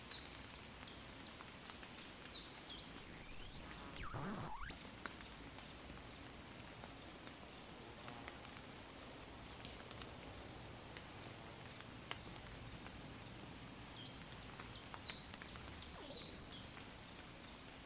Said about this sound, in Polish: I teraz wysłuchaliście przepięknego nagrania, jak myślicie, no mało kto stawiałby, że to jest, że to jest właśnie suweczka i popatrzcie jak trzeba mocno nadstawiać ucha, maszerując sobie po naszych gorach, gorcach, pieninach, tatrach